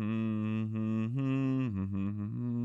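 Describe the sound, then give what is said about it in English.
A single voice hums a low, steady tone for a few seconds, dipping and rising slightly in pitch in gentle steps, fairly soft with no words, imitating a choir's humming part. “The difference was choir B, you had to hum. So I'd be like, hmm, hmm,”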